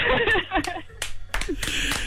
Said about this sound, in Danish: Du får lige en klapsalve med